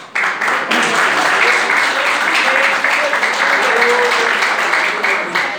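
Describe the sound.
A church audience at an evening worship service bursts into sustained applause, many hands clapping densely and steadily for several seconds, with a few faint voices calling out beneath the clapping.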